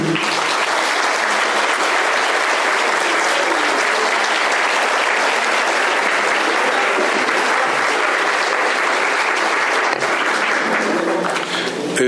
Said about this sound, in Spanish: Es así como culmina esta ceremonia de inauguración. Despidamos con un aplauso a los miembros de nuestro presidium.